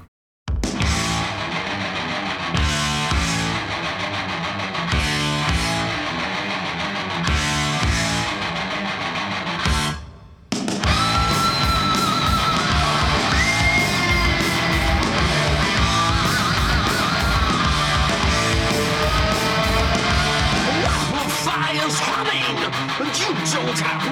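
A loud heavy metal song: choppy, stop-start distorted guitar riffs for about ten seconds, a brief break, then the full band crashes back in driving hard with a soaring lead guitar line.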